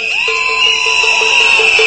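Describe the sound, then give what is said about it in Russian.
Several shrill whistles blow at once in a sustained, piercing chorus, with a steady high tone and short repeated chirps pulsing through it. The sound is loud and continuous, with no talking. “Не, а свист есть, видите, в свистках, да?”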